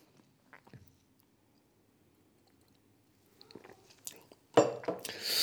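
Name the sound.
sipping tea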